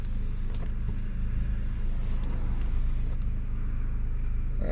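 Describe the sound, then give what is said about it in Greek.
A car brakes in traffic on a three-lane road as someone crosses without looking, heard from inside as a steady, loud low rumble of engine and road noise with faint airy hiss above, and no one speaking. “Τώρα πατάω φρένο γιατί περνάει ένα χωρί να κοιτάξει καθόλου ένα δρόμο που έχει τρία ρεύματα κυκλοφορία.”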